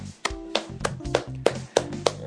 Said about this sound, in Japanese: 拍手が聞こえますかね僕の拍手が。今部屋で一人ぼっちで拍手をしているわけなんですけども